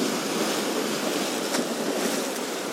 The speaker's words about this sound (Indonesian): coba dengarkan ombak yang semakin kadang deras kadang kecil kadang pasang kadang surut tuh Kencang. Saat ini ombaknya kencang. Nanti tiba-tiba ombaknya reda lagi.